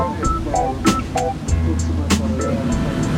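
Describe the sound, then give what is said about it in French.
A low, steady engine drone with rushing water wash from a river boat-bus cruising in Paris just after leaving Notre-Dame, with sharp knocks and faint murmuring voices in the background. “Qu'est-ce que tu penses donc de la vue euh, depuis le bateau-bus bah, C'est une vue magnifique parce qu'on voit presque tous les monuments de Paris, on voit tout.”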